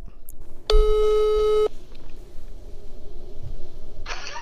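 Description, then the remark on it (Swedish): A single steady telephone ringing tone sounds for about a second as a Sportbladet reporter places a call, clear and fairly loud, followed by quiet background rustle and a brief burst of hiss. “Eh, så vi ringer till honom och kollar.”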